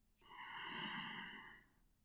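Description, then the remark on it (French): One slow, deep breath taken during a yoga breathing exercise, inhaling deeply and then exhaling completely, rising to a soft airy rush and fading away over about a second and a half, with no talking around it. “Venez inspirer profondément”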